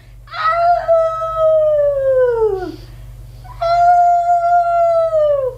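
wolf howling

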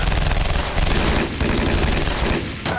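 gunshots

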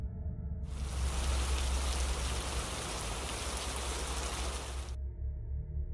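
rain falling

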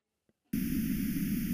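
pink noise

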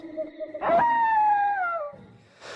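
wolf howl sound effect

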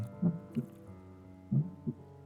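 loud heartbeat sound effect

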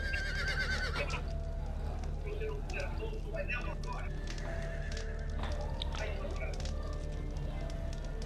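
horses neighing

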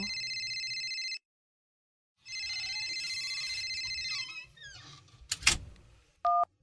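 phone ringing

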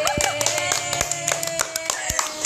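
hand clapping

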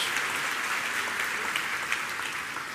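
audience applauding

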